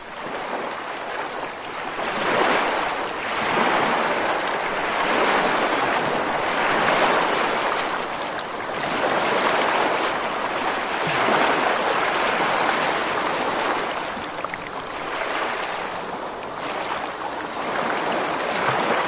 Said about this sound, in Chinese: 我们先来听听一个是海浪的声音。